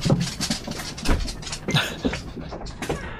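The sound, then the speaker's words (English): A dog named Tucker chews a crunchy dog treat noisily and pants, a steady run of short wet crunches and breaths repeating for a few seconds with no one speaking. “uh, there is Tucker's review of the uh, the dog treat.”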